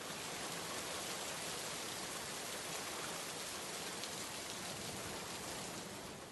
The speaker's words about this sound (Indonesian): Hujan mengguyur Jakarta sore itu. Udara sangat dingin.